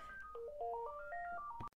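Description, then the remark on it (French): A cheerful electronic phone ringtone plays a quick stepped melody of clear pure tones, rising and falling, before cutting off abruptly. No one speaks over it. “Excusez-moi, j'ai répondu au téléphone.”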